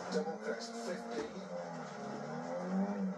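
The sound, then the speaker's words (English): A racing-game car engine drones and revs continuously, its pitch climbing and dipping between gear changes, staying fairly loud and steady the whole time. “But hell, I'm talking and racing at the same time doing a damn podcast, so it's like.”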